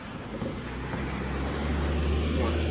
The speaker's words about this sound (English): Two cars, huh? You got two cars coming two different ways.